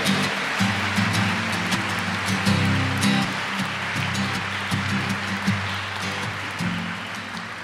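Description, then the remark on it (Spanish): An audience at a celebration of the Immaculate Conception applauds the Virgin Mary in a dense, steady wash of clapping that holds for about eight seconds over a low, sustained hum, with no voices standing out. “Un aplauso para la Reina del Cielo y de la Tierra.”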